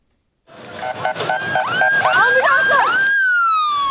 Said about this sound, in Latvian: Zemestrīču visvairāk nopostītajās pilsētās Turcijā un Sīrijā neatliekamās medicīniskās palīdzības auto sirēnu skaņa šajās dienās nozīmē to, ka iespējams zem kāda sagrauta nama sienām ir atrasts izdzīvojušais.